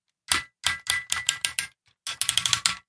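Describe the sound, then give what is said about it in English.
A quick series of sharp mechanical clicks from the large knee joint of an MP44 figure's heavy leg bending, crisp, with a short pause before a faster burst of clicks, no talking over them. “I love that that oh, noise. clicky goodness.”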